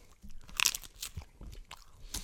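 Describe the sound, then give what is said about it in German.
Someone bites into thin edible rice paper and chews it, giving a series of crisp, dry crunches at irregular intervals, with one louder snap early on and softer crackles after, no talking. “Ich habe auch eine Story zu Esspapier, aber”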